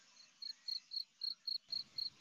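Crickets chirp in a steady, rapid rhythm, about four pulses per second, high-pitched, with a soft low background hum beneath and no voices.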